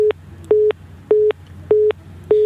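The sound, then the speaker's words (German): A telephone busy tone after the phone drops an incoming call because of a technical fault: steady, evenly spaced electronic beeps, about five in a row, loud and clear over a low background hum, with no voices. “Anscheinend legt das Telefon auf.”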